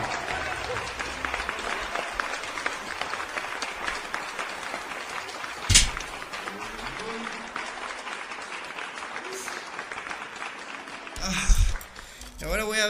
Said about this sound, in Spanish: Un aplauso para nosotros nada más.